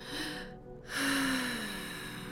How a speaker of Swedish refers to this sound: Jag ska andas ordentligt.